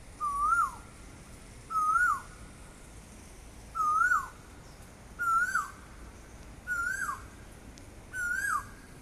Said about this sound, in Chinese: 香港很多人把这个鸟叫升 K 者，就升 K 鸟什么意思呢？这就英文加粤语了，就这个鸟是越叫越高的声音。高高的，越来越高亢。